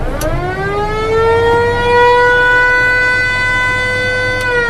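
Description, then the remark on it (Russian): A river passenger boat casting off sounds one long, loud horn blast. The tone swells briefly upward, then holds steady and rich for several seconds over a low engine rumble. “Даем гудок.”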